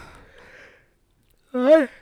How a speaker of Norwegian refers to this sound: Unnskyld, jeg skal prøve å la være å gjespe inn i mikrofonen.